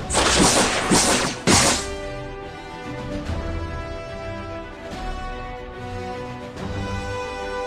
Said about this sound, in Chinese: 他们开始攻击复仇者们，奥创和钢铁侠都向对方飞去，释放爆炸，发射冲击光。